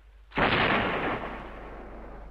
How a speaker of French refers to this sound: À deux heures du matin, tout était terminé, et le capitaine pouvait faire tirer le canon pour m'annoncer